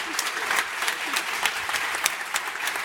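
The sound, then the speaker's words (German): An audience applauds steadily, a dense wash of many hands clapping at an even, sustained level with sharp individual claps popping out, no voices standing out above it. “Applaus bitte nochmal für dieses unglaubliche Orga-Team.”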